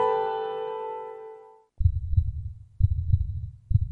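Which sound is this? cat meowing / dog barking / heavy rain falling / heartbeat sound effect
heartbeat sound effect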